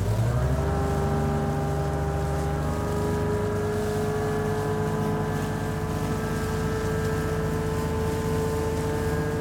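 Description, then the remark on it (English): The engine of a small dinghy carrying 38 people fleeing war toward Britain's coastline drones steadily, its pitch climbing as it revs up in the first moment, then holding a loud, even hum with no voices. “Britain's insecure coastline in sight, fleeing war in dinghies, even pregnant mothers, unseaworthy mothers, 38 in a boat.”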